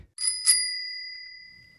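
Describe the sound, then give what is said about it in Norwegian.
A postman delivering a letter rings his bicycle bell twice in quick succession, bright and metallic, with a high clear tone that rings on and slowly fades. No one speaks. “Postmannen kom og ga oss et brev. Og jeg hørte det fordi han plinget med bjellen sin.”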